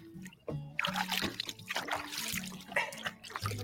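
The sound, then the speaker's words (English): Splashing and trickling water as a small caught fish is released back into the water while fishing, with irregular sloshing bursts and faint voices murmuring in the background. “Let's put the little guy in the water now.”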